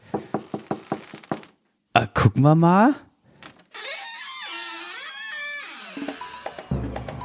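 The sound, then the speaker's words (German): A quick run of about eight sharp knocks on a door, then a rising, creaky squeal as it swings open, followed by voices talking. “Ah, da ist, ah, da ist wieder die Tür. Die hatten wir ja schon lang nicht mehr.”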